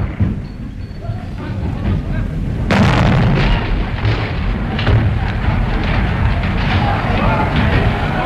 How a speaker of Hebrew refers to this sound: ואנחנו רואים את זה בזריקת רימון בכנסת. 29 באוקטובר 1957, רימון יד מוטל מציע הקהל ומתפוצץ על יד שולחן הממשלה באמצע נאומו של חבר הכנסת יצחק רפאל.